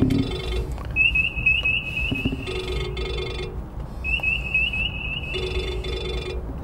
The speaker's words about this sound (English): Oh, excuse me, telephone.